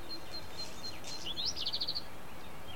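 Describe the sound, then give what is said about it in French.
A bird sings outdoors: a few thin, high notes, then a rising whistle and a quick run of about six bright chirps, fairly soft over a steady background hiss. “Des oiseaux.”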